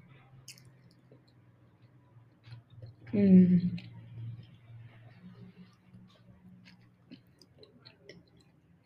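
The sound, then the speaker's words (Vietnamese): Faint, soft chewing of a person eating while talking, with small wet squishes and scattered light clicks over a low steady hum, interrupted by a brief murmured vocal filler partway through. “mình nghĩ là mình sẽ phải vừa ăn và vừa kể chuyện cho mọi người mình sẽ cố gắng làm sao để cho cái cái tiếng ăn nó không bị to để nghe là đỡ phản cảm”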